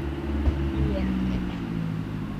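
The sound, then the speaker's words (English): A deep, steady engine rumble from a truck idling or rolling by outside, a low drone that holds fairly constant for the whole stretch with faint knocks on top. “Also, I think there's a truck.”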